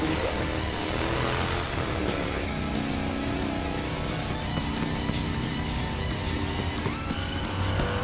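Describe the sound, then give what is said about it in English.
A motorcycle engine roars and revs continuously as it speeds along, loud and steady throughout with shifting pitch, no voices present. “Now, I ordinarily would not run towards a motorcycle that's speeding towards me, but uh, that's why I'm not a superhero.”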